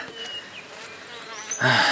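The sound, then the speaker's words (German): A wasp buzzes in a steady, wavering drone, ending with a sudden louder, harsher burst as it swoops nearer. “Ach, verdammte Wespen! Wir müssen hier irgendwo ein Nest haben.”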